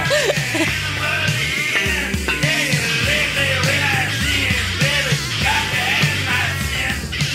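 A loud, dense burst of noisy, distorted rock with a raw voice yelling and wailing over pounding drums, the wall of sound continuous and up-front throughout.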